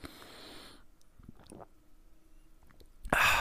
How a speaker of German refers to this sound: Ich nehme noch mal ganz kurz einen Schluck Wasser.